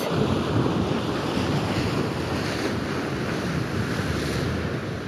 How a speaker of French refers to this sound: Un mâle dominant fonce dans l'eau, créant deux énormes vagues. La gueule grande ouverte et les dents en avant, il fait battre en retraite le prétendant.